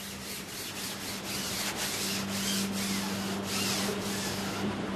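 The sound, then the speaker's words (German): Synthetic fabric being stretched, pressed and glued onto the wing ribs of a Grunau Baby glider by two people: a steady, textured rubbing with repeated strokes roughly every half second, over a low constant hum. No one speaks. “Auf die Rippen der Tragflächen des Grunau-Babys spannen und kleben Kai und sein Chef ein Kunststoffgewebe.”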